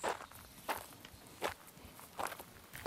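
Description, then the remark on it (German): Footsteps walk across gritty construction-site ground, about five steady, crunching steps roughly a second apart, fairly quiet, with no voices. “Ja, ich höre dich gehen.”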